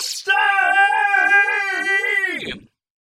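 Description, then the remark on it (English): A loud, anguished scream held for over two seconds, its pitch wavering in slow pulses before breaking off abruptly. A short breathy gasp comes just before it, and no one speaks. “the resident of the dark room across the city, was shattered by that scream.”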